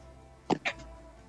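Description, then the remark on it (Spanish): Two quick, sharp sneezes in close succession, fairly soft, bursting out of an otherwise quiet background with no talking. “Un ataque de estornudos.”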